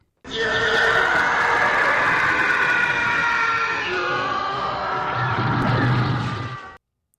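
A loud, sustained TIE fighter spacecraft roar, made by combining a couple of sounds, one of them an animal: a shrieking, howling engine scream that holds steady for about six seconds with a rumbling low undertone near the end, then cuts off abruptly.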